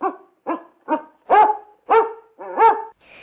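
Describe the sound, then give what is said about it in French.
A dog barks six times in a steady rhythm, the barks loud, growing stronger toward the end, with no one speaking. “Et comme on a un chien à la maison, il, il veut pas le caresser parce qu'il a trop peur.”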